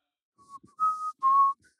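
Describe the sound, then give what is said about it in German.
A person whistles a few short notes: a faint brief tone first, then two louder, steady whistled notes with a breathy edge, no talking. “Was sie noch viel mehr hasst, ist Pfeifen.”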